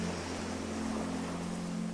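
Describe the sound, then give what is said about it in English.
A steady, soft rush of ocean surf breaking on the shore of a sandy beach and receding, with no distinct individual breakers, accompanied by a constant low hum underneath. No voices are present. “Breathing in as the water breaks on the shore, and breathing out as the water recedes back into the ocean.”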